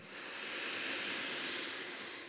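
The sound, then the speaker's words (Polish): A long, steady exhale during a breathing exercise, lasting about two seconds, a broad breathy hiss that swells in gently and fades at the end, heard alone without any talking. “Zrobimy długi wydech.”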